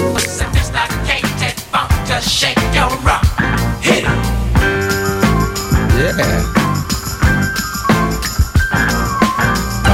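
A funk track from a 1978 album, sampled from the record at about 3 minutes 56, plays loud and continuous, with a thumping bass line, a steady driving beat and bright sustained tones layered on top, with no talking.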